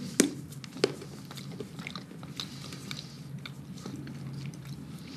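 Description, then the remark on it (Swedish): A sharp snap as a piece of chocolate is bitten off, then a second crisp bite, followed by steady, soft chewing and mouth sounds that continue quietly for several seconds without speech; one of two kinds of chocolate being tasted. “Ja, ska jag testa också. Mm, ta en bit här. För det är två olika sorter.”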